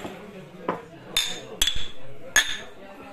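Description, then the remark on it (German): Three or four bright glass clinks ring out in quick succession, each with a short high-pitched ring, over a soft murmur of background voices. “So, da sind wir wieder, Gläser sind wieder voll und los.”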